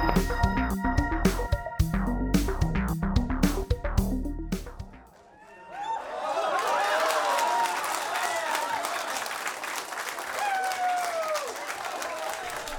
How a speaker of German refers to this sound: selten hat eine so teure Kollision so viel Applaus bekommen. Das, was wir gerade gehört haben, war der Applaus aus dem Kontrollzentrum der Mission nach erfolgreichem Einschlag auf Dimorphos.